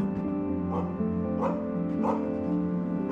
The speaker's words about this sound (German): Weiter entfernt ist das Bellen eines Hundes zu hören. Er reagiert wohl auf ein vorbeifahrendes Motorrad.